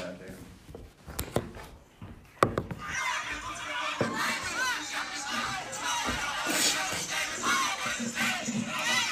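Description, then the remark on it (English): A live concert crowd cheers and screams in a dense, sustained roar that swells after a few sharp thumps early on, many voices overlapping loudly until the end. “We got the crowd lit, hell yeah.”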